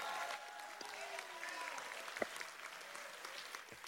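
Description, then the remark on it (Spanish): A crowd claps steadily and loudly, with scattered shouts and cheers rising over the dense applause throughout. “Un aplauso y gritando.”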